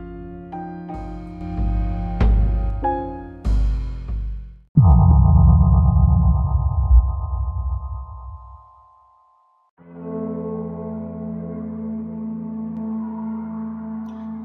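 An electronic music track with sharp synth stabs, then a long droning tone that fades into a brief silence before a sustained, layered synth pad returns. No voices.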